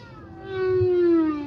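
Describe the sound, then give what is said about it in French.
Underwater song of a male humpback whale, picked up by a hydrophone: one long, low moaning note rich in overtones, swelling louder midway and sliding gently downward in pitch, with no voices. “C'est une baleine à bosse. Des notes graves, hypnotiques.”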